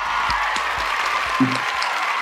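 A crowd applauding steadily, a dense wash of many hands clapping at an even level for a couple of seconds, with a few sharper individual claps standing out.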